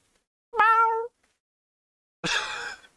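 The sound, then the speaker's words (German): A strange cat brought into a top-floor apartment meows twice, clear: a tonal, wavering meow followed after a short pause by a harsher, raspier one. No talking. “Max hat eine fremde Katze mitgebracht in der Wohnung”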